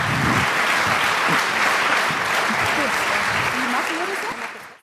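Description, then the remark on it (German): Sustained audience applause, a dense steady wash of many hands clapping at full loudness, with faint voices mixed in underneath before it tapers off at the end. “Ganz großen Applaus.”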